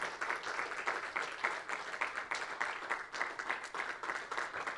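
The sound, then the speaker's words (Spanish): A crowd applauds for the Father, the Son and the Spirit, a dense wash of many hands clapping steadily at an even level for several seconds, with no one speaking over it. “Un aplauso al Padre, al Hijo y al Espíritu.”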